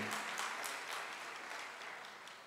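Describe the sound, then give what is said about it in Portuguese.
An audience applauds: a dense, steady wash of many hands clapping together, sustained throughout and tapering slightly toward the end, with no voices over it. “Vamos aplaudir pela vida deles.”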